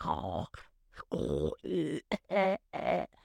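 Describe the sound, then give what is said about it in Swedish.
A voice imitates a man's morning throat-clearing noises and grunts after he gets up, five or six loud bursts separated by short pauses, each a rough, voiced rasp. “Men varje morgon när han går upp så är det, alltså han, han låter så sjukt mycket. Alltså det är harklingar, det är...”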